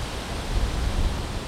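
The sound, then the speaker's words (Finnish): A steady, dense roar of storm-driven waves over a metre high on Lake Päijänne, Finland, heard at the shore, a broad rushing wash that swells slightly in the middle without distinct breaks, with no voices present. “Nyt mä laskeudun tähän rantaan ja kova kohina pitäisi alkaa aallot on korkeita, ylimetrisiä.”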